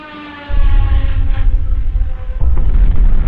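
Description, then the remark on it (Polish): Heavy artillery shelling booms from the battleship Schleswig-Holstein opening fire at the start of World War II: two deep, rumbling blasts a couple of seconds apart, loud, over a fading wail of a siren-like tone, with a sustained low roar between. “Rozpoczęcie ostrzału z pancernika Schleswig-Holstein to chwila, którą powszechnie przyjmowało się za rozpoczęcie II wojny światowej.”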